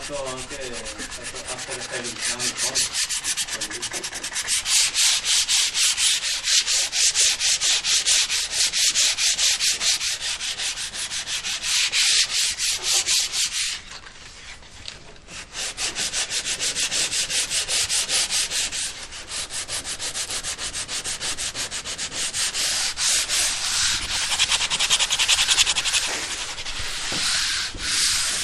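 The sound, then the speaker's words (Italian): Steady scraping of a wooden oar being scraped smoother in a boatyard workshop in Cannaregio, rapid rasping strokes repeating in a continuous rhythm with a brief pause midway, then resuming just as loud; no voices. “No, sto finendo di, di rigrattare questo remo per renderlo più liscio.”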